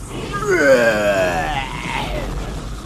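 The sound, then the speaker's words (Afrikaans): A person voices a father giant who suddenly jumps up and roars loudly: one sustained growling cry that swells and then slowly trails off, alone with no talking. “En toe spring pa reus skielik op en brul hard.”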